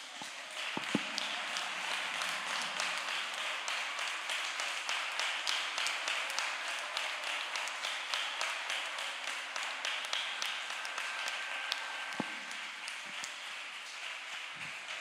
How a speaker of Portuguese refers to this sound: Nós queremos, Senhor amado, agora dar a melhor salva de palmas a Ti, Senhor.